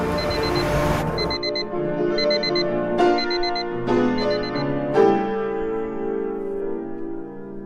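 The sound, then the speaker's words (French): An alarm clock rings at 6:30 in the morning, sending out high electronic beeps in short bursts about once a second over a sustained tonal chime, loud and steady with no one speaking. “Quand le réveil sonne, j'ai envie de le manger pour le garder tout entier.”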